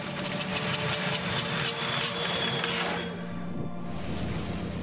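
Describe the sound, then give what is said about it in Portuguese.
The only working engine of a plane, overloaded as it tries to keep the aircraft in the air, drones loudly and steadily, its dense roar thick with low rumble and a whining tone, shifting slightly in pitch near the end. No voices are heard. “Todos ficaram em silêncio enquanto ouviam apenas o barulho ensurdecedor do único motor em funcionamento que, sobrecarregado, tentava manter a aeronave no ar.”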